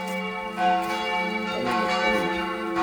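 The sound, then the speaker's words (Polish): Bells ring out loudly and steadily, their layered tones sustaining and overlapping for a few seconds with no one talking. “E, to co, dzwonimy?”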